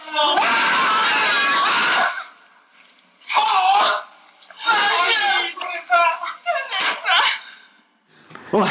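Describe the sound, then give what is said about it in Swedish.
Several family members shout and scream excitedly in loud, strained outbursts as they react to news of skier Therese Johaug's doping ban. There are about five bursts of overlapping voices separated by short pauses; the first is long and intense, the later ones choppier. “Ja, du hör ju familjen.”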